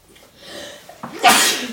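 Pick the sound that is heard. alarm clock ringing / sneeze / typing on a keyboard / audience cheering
sneeze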